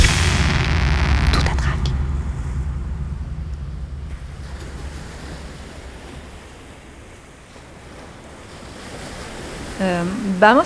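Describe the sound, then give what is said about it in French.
Waves wash continuously onto a beach, with a loud surging break at the start and a steady rushing roar after it. Wind noise runs underneath, and a brief wavering tonal cry rises at the very end. “J'étais à la plage.”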